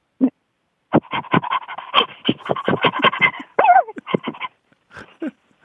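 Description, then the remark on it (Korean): A person imitates an excited, happy dog going out for a walk, panting in rapid, breathy bursts with a few whiny vocal squeaks mixed in, fairly loud, pausing briefly before a final short flurry. “그리고 기쁜 강아지. 기쁜. 산책 나갔을 때 아, 나온 아, 강아지.”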